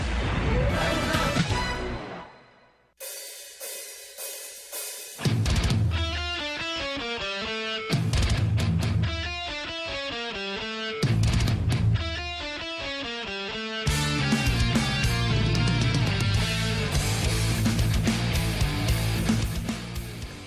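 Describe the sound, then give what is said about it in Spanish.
Loud, heavy metal music blasts with distorted guitars and pounding drums, briefly dropping to a quiet sustained chord before crashing back in at full force. “Bueno, lo que ahora escuchamos pues bueno, suena, suena pues a metal, ¿verdad? Suena fuerte”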